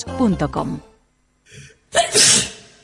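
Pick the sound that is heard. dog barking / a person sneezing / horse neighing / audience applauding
a person sneezing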